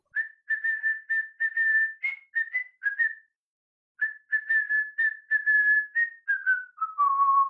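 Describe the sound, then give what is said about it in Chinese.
A tall man whistles a bouncy melody in clear, steady notes, two phrases split by a short pause, the second drifting downward at the end. No one speaks. “那变态一家，特别是高大男人的口哨声，还会出现在我的梦里。”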